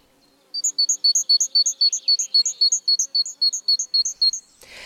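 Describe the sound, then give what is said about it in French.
A great tit, about 14 cm long, sings a rapid, high two-note phrase repeated steadily about sixteen times, bright and clear against a quiet background, ending in a soft rustle. “Plus grande, la maison charbonnière mesure 14 cm de long.”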